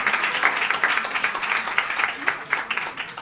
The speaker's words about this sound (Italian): fategli un applauso che sembra uno spettacolo. Eh, sembra uno spettacolo.